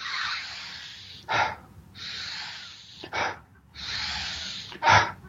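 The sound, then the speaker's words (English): A person demonstrates a breathing exercise with three loud breathing cycles, each a longer airy draw of breath followed by a short, sharp, forceful burst of air, breathing in at double the rate of breathing out, in a quick uneven rhythm with no talking. “breathe in fully, and then just let go.”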